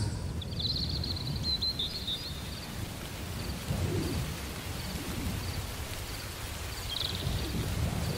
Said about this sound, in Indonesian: Perlahan aku memasuki hutan itu, tiba-tiba hujan turun dengan deras.